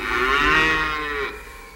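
A single drawn-out cow moo of thirsty livestock crying for water in the Israelites' camp at Rephidim, loud and steady with a rich, buzzing tone, lasting just over a second before cutting off into quiet background noise. No one speaks.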